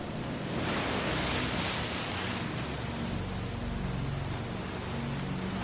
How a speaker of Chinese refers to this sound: 当我们进入 Ultraviolet，就像是迈入了时空穿越的隧道，森林、大海、